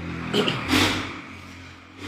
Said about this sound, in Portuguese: Esperar essa moto passar.